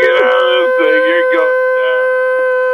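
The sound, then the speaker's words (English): A voice hums a steady, droning mechanical tone, imitating a slowly moving lift going up. The hum is loud and holds continuously for about three seconds with slight wavering. “it's going so slow, and it's making that humming noise.”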